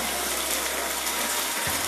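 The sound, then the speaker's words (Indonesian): Light afternoon drizzle falls on a house terrace with a small awning, with some spray blowing in. A steady, even hiss of fine patter holds at the same level throughout, with no voices. “Cerita sore dengan rintik rintik hujan”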